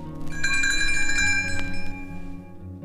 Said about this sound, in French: Vous saurez que le moment est venu de tourner la page lorsque vous entendrez la fée clochette. Elle fera teinter ses petites cloches comme ceci.